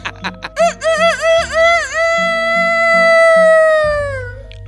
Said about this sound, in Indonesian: Apa tuh? Suara apa? Ular. Bukan. Kelinci. Ayam bego. apa itu? Dimin aja. Iya. Biar suara ayam habis. Iya. Dia bisa sampai lima kali udah iya, serak.